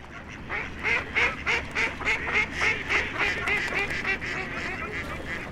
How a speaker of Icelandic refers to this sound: Nei, nei, nei, nei, nei, ekki, ekki svona endur, ég er e, ekki að tala um endur sem að tegur með sér í bað heldur alvöru endur, lifandi, reynum aftur.